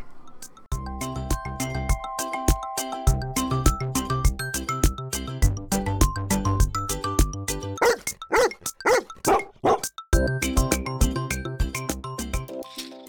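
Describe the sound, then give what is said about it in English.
Sled dogs from a 1,000-mile sled race bark in a quick burst of about five loud yelps partway through, set against steady, rhythmic background music that plays throughout. “Meet the dog slash mushers.”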